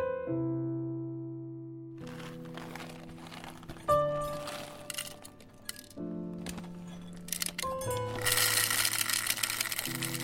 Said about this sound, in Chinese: 过了两天，那个相关器械到了，然后我就开始磨咖啡。